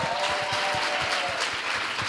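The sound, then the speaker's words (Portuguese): A crowd at a church gathering applauds the guests dressed in gala clothes, many hands clapping in a dense, continuous patter that stays fairly loud and even throughout, with no voices standing out. “Vocês estão lindos Palmas pra galera, gente.”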